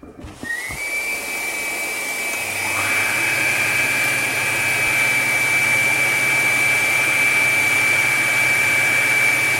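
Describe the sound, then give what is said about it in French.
A workshop vacuum cleaner connected to a machine switches on with a click and spins up into a loud, steady roar with a high-pitched whine, running without pause and with no one talking. “Oui, très important l'aspirateur. Attention, ça fait faire du bruit.”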